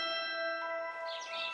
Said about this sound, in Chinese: 清晨。窗外的麻雀叽叽喳喳，正在发电报给敌人。